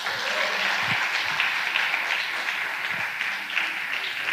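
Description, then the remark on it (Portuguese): A crowd applauds the Lord for the lives of a team, a dense wash of many hands clapping at an even, fairly loud level with no pauses, and a faint voice briefly surfaces beneath it. “Então, essa equipe maravilhosa, você pode aplaudir o Senhor pela vida deles?”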